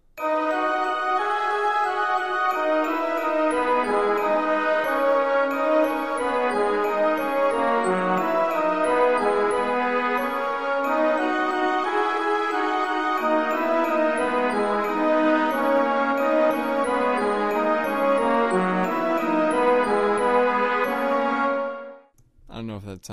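A bright orchestra plays a single melody in unison, with mellow horns, marimba, chiming glockenspiel and strings all doubling it, loud and steady for over twenty seconds before stopping abruptly.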